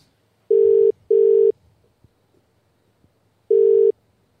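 A telephone ringback tone of a call being placed to a guinea pig keeper in Australia: a pair of short, steady buzzing tones, a pause, then another tone starting the next pair. No voices, just the ringing on an otherwise quiet line.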